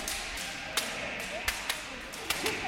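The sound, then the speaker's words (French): Hard punches land during a fighting drill in a quick, irregular series of about five sharp smacks, crisp, over a steady background hiss with a faint murmur. “Eh doucement, vous frappez fort”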